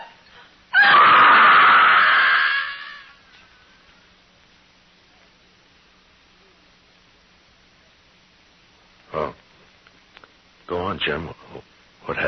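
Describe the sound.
A woman lets out a single loud, shrill scream lasting about two seconds near the start, followed by a long quiet stretch and then a few brief voices near the end.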